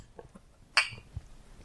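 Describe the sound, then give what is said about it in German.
A single bright clink of glasses touching in a toast with Pepsi Max at a regulars' table, crisp, with a brief ringing decay against a quiet background with faint low rumbling. “Prost.”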